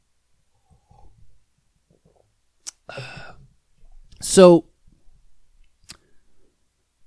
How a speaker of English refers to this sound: Um, hold on, sip of coffee.